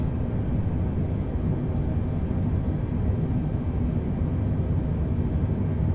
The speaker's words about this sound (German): Ich würde sagen, wir starten jetzt, ne? Schönes Flugzeug, würde ich sagen. So. Start.